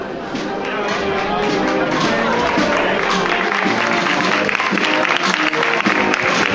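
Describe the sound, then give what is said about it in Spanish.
Steady, dense crowd applause fills the whole stretch, a continuous loud patter of many hands clapping at an outdoor street procession on Calle Tablerón as the paso de palio of the Virgen de la Desamparada passes, with a voice talking over it. “Podéis escuchar junto a mi voz los aplausos de respetable en el último, la última parte de, de la calle Tablerón, por donde está ahora mismo caminando la- el paso de palio de la Virgen de la Desamparada.”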